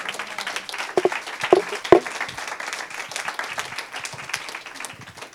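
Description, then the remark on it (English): A crowd breaks into applause for a guest speaker being introduced, a steady wash of many hands clapping with a few sharper claps standing out early on, sustained for several seconds at moderate volume. “Can we just give it up for him real quick?”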